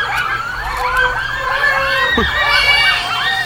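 someone crying

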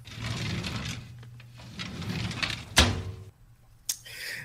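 drawer sliding open

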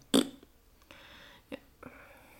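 fart sound

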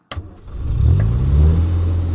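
engine revving

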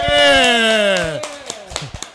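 applause

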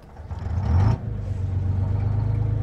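city bus pulling away

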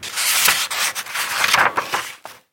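book pages being turned

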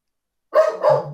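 dog barking

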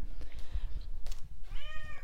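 cat meowing

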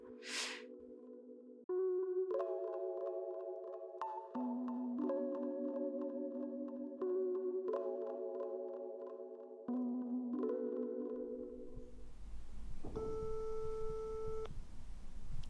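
telephone ringing tone

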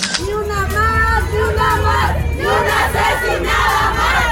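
protest march crowd chanting

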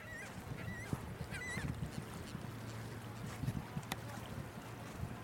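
seaside ambience

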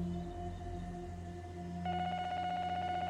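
telephone dialing tones

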